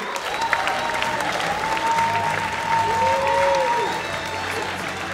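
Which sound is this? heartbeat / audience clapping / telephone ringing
audience clapping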